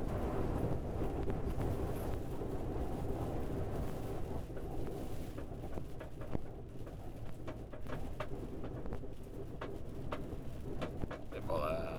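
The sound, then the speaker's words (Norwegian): Strong wind buffets the microphone with a steady, loud low rumble that lasts throughout, broken by occasional sharp crackling gusts. “Det blåser noe helt sykt her.”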